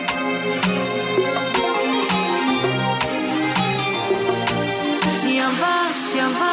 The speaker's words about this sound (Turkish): Şimdi oğlumun çok sevdiği bir şarkı var. Benim aslında biliyorsunuz biraz değiştirdiğim bir şarkı bu.